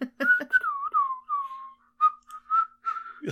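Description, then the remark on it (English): Someone whistles a short, wandering melody, the pitch sliding smoothly between notes in a relaxed, casual tune with brief pauses between phrases. “just whistling like mm-hmm.”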